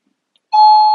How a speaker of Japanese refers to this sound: ちょっと、あの、本当あの、テンション上がっとった今日、ちょっと歌っちゃってたんだけど、ピンポン鳴っちゃいました。すいませんね。